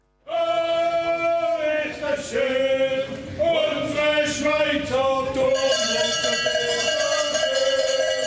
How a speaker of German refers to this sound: Am Schluss hat es am Flughafen Zürich dann sogar noch ein kleines Ständchen gegeben für Julia Steigruber und den Pablo Brecker.